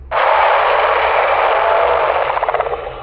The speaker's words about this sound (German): Nach neun Schlägen ertönt ein extrem lautes Brüllen.